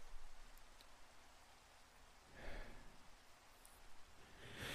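Steady rain patters down in a soft, continuous hiss, with a couple of brief heavier gusts of drops swelling midway and near the end. No voices.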